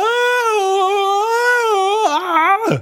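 A father in a boat lets out a sudden, loud, drawn-out scream of pain as a fishing hook gets stuck, holding a high wavering cry for nearly three seconds before it breaks and drops sharply at the end.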